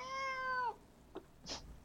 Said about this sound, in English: as you can tell from that plaintive meow.